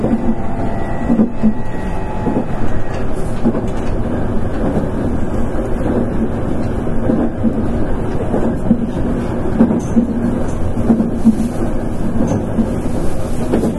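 A Nankai 8300 series electric train on an Airport Express run from Namba to Rinku Town runs steadily, its motor humming in a low, even drone while rhythmic clickety-clack of wheels over rail joints repeats throughout. No voices are heard.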